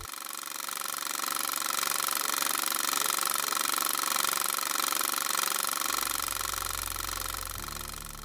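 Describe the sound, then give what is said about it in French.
A reel-to-reel film projector whirs and clatters steadily, a dense mechanical rattle with a low motor hum that deepens near the end, with no voices. “que vous écoutez, c'est le son d'un projecteur à bobine.”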